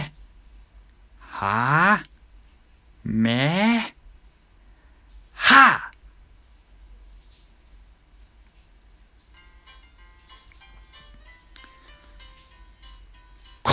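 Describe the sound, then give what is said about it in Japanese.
A man's voice imitates charging the Kamehameha energy-blast attack, done at home while a shower is running: two loud, drawn-out strained cries with rising pitch, then a short explosive shout, followed by near silence and a faint background hum. “ちょっとカメハメハ試してみます。”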